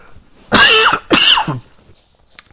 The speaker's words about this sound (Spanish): Un segundo, que voy a toser.